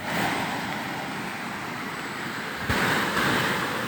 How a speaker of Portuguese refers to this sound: Aqui tem uma sauna. Deve ter uma galera do Vida Vida ali dentro. E aqui tem uma cachoeira.